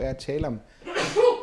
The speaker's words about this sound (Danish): Åh, oh, prosit. Undskyld. øh, jeg talt, jamen, det kan godt være, hver gang jeg siger kirkefædre, så begynder at nyse. Det kan godt være sådan, jeg er helt allergisk. ja alt det støv, der følger med.